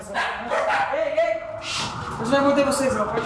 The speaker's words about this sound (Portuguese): E foi surpreendido por dois poodles antissociais lá no alto.